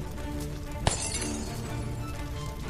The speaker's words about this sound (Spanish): Efectivamente, la ventana del piso superior parecía haber explotado por la diferencia de temperatura.